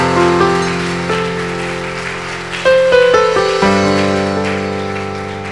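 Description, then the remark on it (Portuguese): An audience applauds the Lord loudly at a night service, a dense, continuous wash of clapping that runs the whole time, mixed with sustained keyboard chords that change partway through. No one speaks. “Pode aplaudir o Senhor bem forte nesta noite.”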